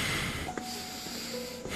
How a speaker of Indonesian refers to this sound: Saya cuma bisa dengar suara langkah kaki berat melangkah masuk ke dalam dan dengusan nafas berat.